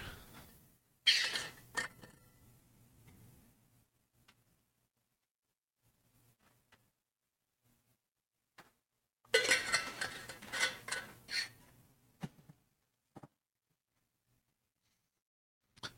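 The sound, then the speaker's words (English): Glassware clinks and clatters in two busy bursts as someone gets a glass of water, one near the start and a longer one past the middle, with near silence and a few faint taps between. No one speaks. “So to start off, let me get some water.”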